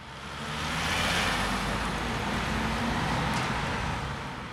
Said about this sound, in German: München. Über die Arnulfstraße nahe dem Hauptbahnhof rauscht der Verkehr.